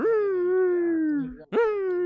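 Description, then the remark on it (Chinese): A voice imitates a malfunctioning home air quality monitor with two long, droning tones, the first held steady and slowly sinking for over a second, then a brief gap and a second tone rising back up. “就是我们家有一个那个，就是看我们家空气污染了没啊， 哦， 啊， 什么二氧化碳， 就是空气质量监测仪， 对， 那个怎么不正常了？ 他就在那儿抽风，嗯，”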